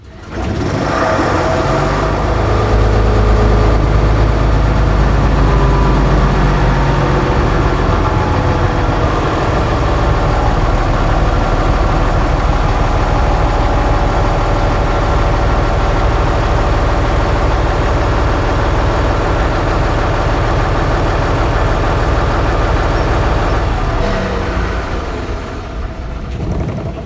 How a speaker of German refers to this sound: Aber hören wir uns doch mal an, wie der Dieselmotor startet und anschließend wieder ausgeht.